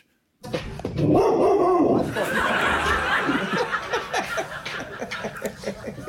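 A female rottweiler, trained as a guard dog to alert to suspicious people outside the door, lets out a loud bark, followed by several seconds of choppy, rhythmic bursts that sound like laughter mixed with more gruff barking.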